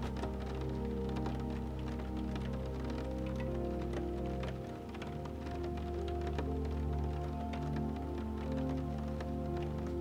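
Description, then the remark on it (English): Drips of rainwater slide down a roof and tap steadily after a storm has passed, a dense scatter of soft, dull taps over a low continuous hum, even in loudness throughout. “Observing more, drips of rainwater slide down the roof, creating a dull tapping sound that gives you another sign that the storm has now passed.”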